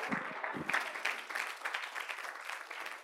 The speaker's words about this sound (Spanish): Dale ese fuerte aplauso, mi hijo, que llegue al tercer cielo.